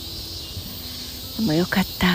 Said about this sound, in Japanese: セミさん溢れてます、まあ、今年の夏始まりは関東はセミさんがいない声が聞こえない実はこの降ってくるようなセミの声この下を歩くというのが一つの夏の贅沢さではありましたが確かにいませんでしたよね。